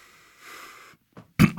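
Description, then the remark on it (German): A breathy intake of air, then a quick two-part throat clearing, harsh, the second rasp shorter than the first, with no talking. “Da muss ich mich räuspern.”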